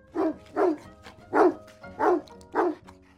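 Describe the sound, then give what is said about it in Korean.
Dogs bark five times in a steady, evenly spaced rhythm, each bark loud with a short rough edge, and only faint background noise in the gaps. “그러자 개들은 여기저기 뛰어다니며 싫다고 소리쳤지요.”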